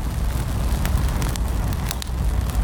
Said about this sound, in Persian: نخودی دوباره راه افتاد. جلوتر به آتیش رسید. گوشه برای خودش میسوخت